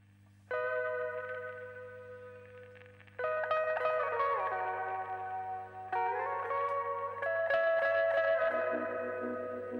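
Synth-pop music with bright, sustained electronic chords that shift every few seconds, washed in echo and reverb over a steady low drone, fairly loud and with no voices.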